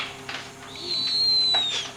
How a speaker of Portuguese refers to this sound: Maldita coruja assustou a gente, vai embora.